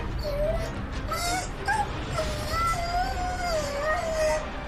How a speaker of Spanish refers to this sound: El silencio invadió la casa. Solo se escuchaban los gemidos lastimeros de la Rottweiler.